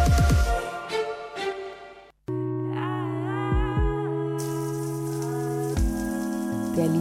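shower water running

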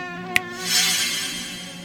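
mosquito buzzing

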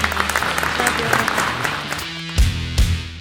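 applause

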